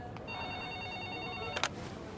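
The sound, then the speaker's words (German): A reception desk telephone rings with a call from one of the conference rooms, a steady electronic tone of several stacked pitches held for over a second, then a brief click-like burst near the end. No one speaks. “Das Empfangstelefon klingelt.”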